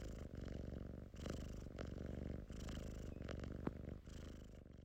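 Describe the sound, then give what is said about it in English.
A male cat purrs steadily while being stroked, a low rumbling drone with rhythmic pulses of inhale and exhale continuing throughout, with no voices. “When I stroked him, he started to purr.”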